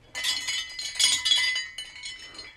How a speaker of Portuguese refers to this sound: Ó, o barulho das minhas medalhas aqui, só para dizer que eu não tô mentindo.